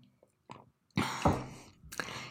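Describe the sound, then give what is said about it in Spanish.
A few noisy slurping sips of hot lemon tea come in short bursts separated by brief pauses, with soft swallowing and breathing sounds between them and no talking. “Hoy me estoy tomando un tecito de limón, este, le voy a dar un traguito.”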